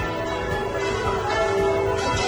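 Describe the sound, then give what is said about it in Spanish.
Cathedral church bells ring steadily and loudly in a town in Nicaragua, their overlapping tones sustained, with new strikes roughly every half second, rung after news that a local woman had won. No voices are heard. “Ahí están sonando las campanas, lo que escuchan ustedes son las campanas de la catedral que sonaron”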